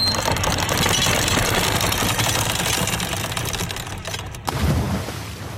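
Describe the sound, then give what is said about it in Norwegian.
A continuous, loud metallic rattle of a boat's anchor chain running out fast as the anchor is dropped, a dense clattering roar that holds steady for several seconds before a sudden clunk and a short final burst. “Bare droppe ankeret.”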